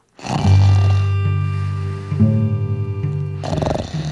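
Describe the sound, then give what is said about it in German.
A loud human snore: one long, low, rattling drone lasting a few seconds, with a brief hitch midway and a breathy rasp as it ends. No one speaks. “Sie soll verraten, in welchem Bereich das störende Röcheln, Sägen oder Knurren genau entsteht.”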